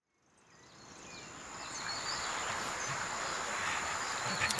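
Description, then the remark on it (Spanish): A dense swarm of bees buzzes continuously, fading in over the first second and then holding a steady, droning hum with faint high chirps scattered through it. “Las abejas dan en él.”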